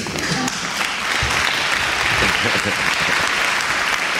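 Sustained applause from a crowd, a dense steady clatter of many hands clapping that stays loud and even throughout, with no individual claps standing out.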